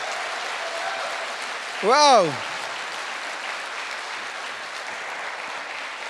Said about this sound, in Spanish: Ahora sí, dele fuerte ese aplauso al que vive.